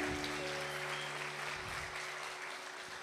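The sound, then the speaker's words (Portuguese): A church audience applauds steadily for the brothers in São Paulo during a live-broadcast sermon, a dense wash of many hands clapping at once that fills the whole moment at a moderate, even level, with a faint low hum running beneath it. “Então, uma salva de palmas aos nossos queridos irmãos de São Paulo, né?”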